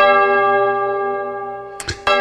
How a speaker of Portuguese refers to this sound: Eu só quero agradecer a Deus e dizer: toca o sino, sacristão.